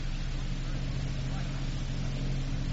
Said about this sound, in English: Motorboat. Yeah. Making this way, too. Let's not give the boys a false alarm until we're sure it's the boat we're looking for.